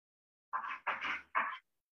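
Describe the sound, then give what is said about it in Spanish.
A dog waiting at a door to be let in pants in three quick, breathy huffs, evenly spaced over about a second, with quiet before and after and no one talking. “Voy a tener que abrirle la puerta a mi perro.”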